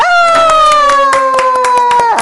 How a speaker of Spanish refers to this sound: Aplaude.